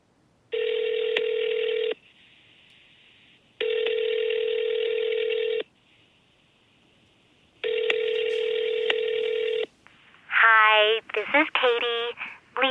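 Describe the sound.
A phone call placed with Siri to a mobile number rings out with three steady, buzzing ringback tones, each about two seconds long with pauses between, followed by a voice beginning to speak at the end.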